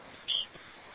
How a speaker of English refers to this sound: The beep was loud.